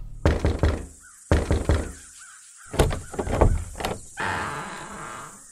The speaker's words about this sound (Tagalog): Nagising ako dahil sa malakas na katok sa pinto.